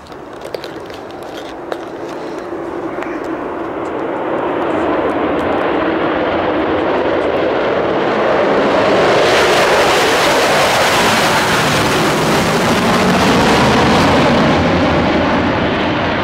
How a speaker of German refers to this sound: Ähm, das ist im Original ein Video, wir hören jetzt mal nur den Ton. So klang die Concorde am Boden nach dem Start.